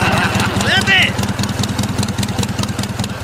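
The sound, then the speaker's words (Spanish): A motorcycle engine idles with a steady, rhythmic low putter throughout, having started up again after being switched off, while a voice talks briefly over it near the start. “¡Ah, ya se prendió otra vez! ¡Está, embrujada! ¡Está embrujada esta moto!”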